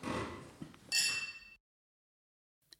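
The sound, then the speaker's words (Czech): Wine glasses clink together once in a toast with a bright, ringing tone that lingers about half a second over a soft rustle, then cuts to silence before one faint tap. “Těším se na to a na zdraví. Na zdraví”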